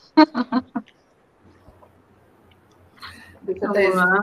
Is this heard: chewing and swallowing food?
yes